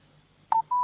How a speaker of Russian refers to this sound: ага, связь опять икнула.